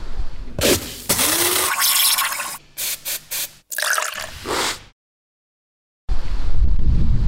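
strong wind blowing

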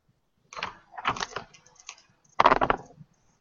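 dice being rolled

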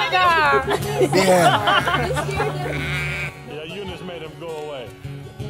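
sheep bleating

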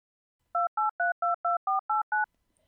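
telephone ringing sound effect

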